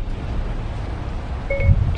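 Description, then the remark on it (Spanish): Siri's activation beep, triggered by saying "Hey Siri" in hands-free mode: one short, clear electronic tone near the end, sounding over a steady low rumble. Nobody speaks. “Yo estoy ahora mismo, por ejemplo, en manos libres y le digo, oye Siri.”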